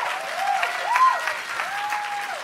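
An audience applauds steadily, dense overlapping claps forming a continuous wash for a couple of seconds, with a few faint tonal sweeps riding over the clapping.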